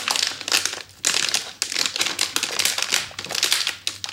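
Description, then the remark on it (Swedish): Continuous crinkling and rustling of a wrapped gift package of small dog treats being squeezed and felt through the wrapping, with brief pauses between bursts of crackly, papery noise. No one speaks. “Känner du det prassla här?”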